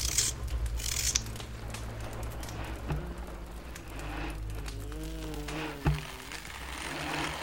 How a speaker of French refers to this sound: Posez une feuille de papier sur une planche en bois et frottez à la mine de plomb.